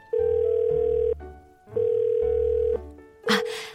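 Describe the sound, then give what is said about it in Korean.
A phone line ringback tone while calling a customer service centre: two long, steady beeps about a second each, separated by a pause, followed by a brief burst of noisy static at the end. “아, 이렇게 하다가 밤샐 것 같아서 제가 고객센터에 전화를 해봤습니다.”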